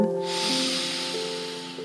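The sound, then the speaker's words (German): A long, steady airy breath drawn in during a guided breathing exercise, lasting nearly two seconds, over a soft sustained musical drone in the background. “Wir atmen ein”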